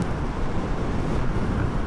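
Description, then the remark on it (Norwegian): Steady, dense roar of wind buffeting and road rumble, loud and constant with heavy low-end noise, heard while riding an electric motorcycle without a fairing: wind noise around the helmet, tyres humming beneath and a faint hum from surrounding cars. “jeg hører egentlig litt sånn summing fra noen biler eh, rundt meg. Dekkstøy. Og så er det selvfølgelig støy eh, rundt hjelmen er liksom det.”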